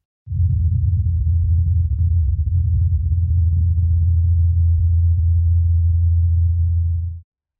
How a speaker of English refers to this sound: Did you hear that humming sound after a few seconds? That was NASA's Ingenuity helicopter flying on Mars.